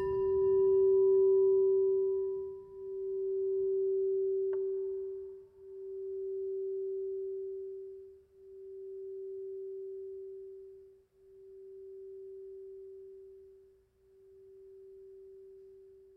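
A church gong is struck once during a morning service and left to ring. Its steady mid-pitched tone hums and swells in slow, regular pulses while gradually fading over about sixteen seconds, with no voices.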